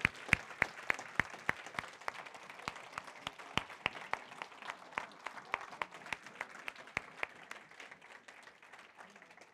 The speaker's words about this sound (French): Alors, est-ce qu'on peut, là, vraie bonne, donner une bonne main d'applaudissement pour toutes nos personnes avec les têtes blanches?